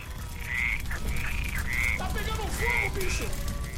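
A toad croaks in a rapid series of short, buzzy calls, one after another over a few seconds, fairly loud against a steady low background rumble.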